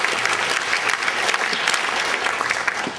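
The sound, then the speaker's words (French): Sustained audience applause, a dense, even patter of many hands clapping at once, steady and fairly loud throughout with no voices standing out, applauding an absent future deputy (adjointe) at an event hosted at the Comédie. “Donc je pense que vous pouvez l'applaudir car vous aurez bientôt une adjointe dynamique.”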